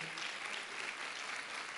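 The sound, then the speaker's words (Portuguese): A church audience applauds the Lord, a dense wash of many hands clapping at an even, moderate loudness throughout, with no voices standing out. “A Bíblia diz: aplauda mesmo ao Senhor.”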